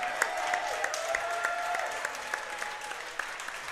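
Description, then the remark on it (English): An audience applauds the Milwaukee Barons steadily for a few seconds, a dense wash of clapping with a few sharper, louder claps standing out, and no voices breaking through. “Let's give the Barons a round of applause tonight as well.”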